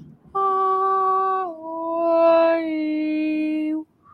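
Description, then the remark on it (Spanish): A voice imitates whale song with one long, loud moaning tone that drops in pitch partway through and holds for several seconds, with no talking. “Que hay unas que son como unas ballenas que piden ayuda.”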